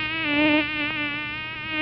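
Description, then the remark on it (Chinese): A mosquito's thin, continuous whining buzz beside a woman's ear, with a slightly wavering pitch, holds steady for nearly two seconds, fairly loud and heard alone without any talking. “因为吼有一次哈，有一只蚊子一直在你妈妈耳边啊，哦哦哦哦哦哦哦，”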